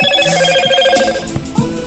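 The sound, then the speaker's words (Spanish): A phone message notification tone rings out, a bright, steady electronic chime with layered high pitches sustained for about two seconds, with a few soft low bumps underneath and no one speaking. “Perdón, perdón, ahí por eh, los mensajes.”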